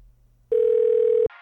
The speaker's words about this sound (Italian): Senti, facciamo una cosa, lo chiamo un attimo, va, chiamo un attimo. Chiama, chiama. Chiamo... Ok. Oh, sta, sta squillando.